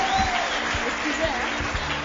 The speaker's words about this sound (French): Et merci d'applaudir pour vous-même, très très fort.